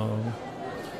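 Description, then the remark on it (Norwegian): Steady background babble of many people talking at once at a busy trade fair, with a low hum briefly audible at the start before the general crowd noise carries on. “folk som prater og larm, og mm, da skal det høres sånn ut i bakgrunnen eh, også i poden i dag.”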